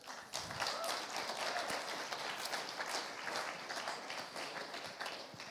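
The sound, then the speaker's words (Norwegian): An audience applauds steadily for guests coming up, a dense crackle of many hands clapping at once that holds at an even level for several seconds without a break. “Men akkurat i dag så skal vi få lov til å gi en god applaus når de kommer opp.”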